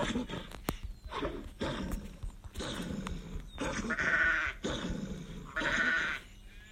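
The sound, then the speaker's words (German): Sheep bleat over and over in quick succession, a series of loud, wavering cries that overlap one another with barely a pause between them. “Schaf, Schaf, Schaf, Schaf, Schaf, Schaf, Schaf.”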